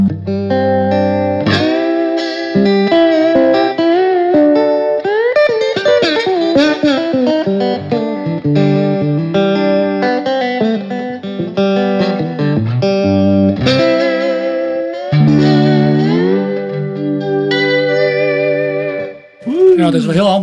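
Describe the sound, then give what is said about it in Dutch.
An electric guitar plays sustained chords and melodic lines through a Magna Vibe vibrato effect, its notes wavering in pitch with a steady shimmering wobble, loud and continuous for about twenty seconds. “beetje vibrato op staan. Ja. De, die is te gek, hè? Die is mooi, hè? Zo. Magna Vibe.”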